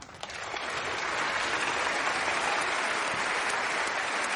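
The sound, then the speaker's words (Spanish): Steady applause from a large audience in an auditorium, rising quickly in the first second and then holding as a dense, continuous clatter of many hands clapping with no voices; Marcus and Virgita applaud among the audience. “Marcus y Virgita aplauden entre el público.”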